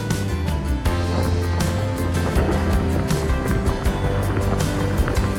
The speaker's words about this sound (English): So, although there have been a lot of times where it's been crashing waves.